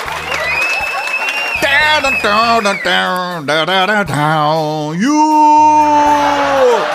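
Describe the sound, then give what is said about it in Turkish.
A lone voice imitates booing a singer, letting out long, loud, drawn-out jeering cries whose pitch wobbles and then rises into a sustained, strained howl near the end. “Sonra da her şarkının sonunda tek başıma şarkıcıyı yuhalayayım.”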